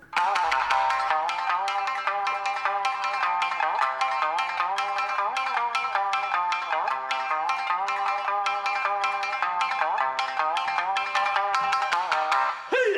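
Shamisen music plays with no voices: bright, twangy plucked notes struck in fast, sharp runs, with a driving rhythm held at a steady, loud level throughout.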